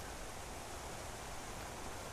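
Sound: rain falling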